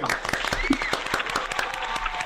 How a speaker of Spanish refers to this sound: Te felicito. Tienes un gran conductor. Aplauso para él.